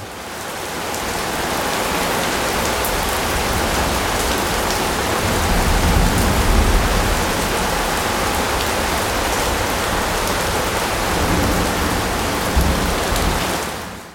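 Heavy rain pours steadily and densely for the whole stretch, a loud, close hiss of drops on surfaces, with a couple of deep low rumbles swelling briefly beneath it. No one speaks.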